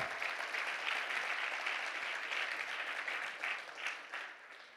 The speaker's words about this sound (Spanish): ¿Cuántos dicen amén? Dale un fuerte aplauso al Señor.